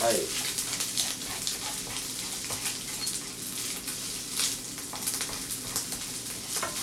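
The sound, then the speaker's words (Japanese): Steady sizzling of rice being stir-fried in a hot pan, seasoned with salt, pepper and chicken stock, with scraping stir-fry motions and bursts of crackle throughout; no one speaks. “鶏ガラスープもねなんとなく入れていこうと思いますから適当にねはいお好みですはいいい音しますね炒めていきますはいはいはい”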